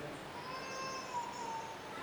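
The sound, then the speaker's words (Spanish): A child cries in one long, high, wavering wail that slowly drops in pitch, moderately loud over a steady low murmur of background noise. “hay un niño llorando, eh, está la capilla de San Juan Pablo, con un clima perfecto.”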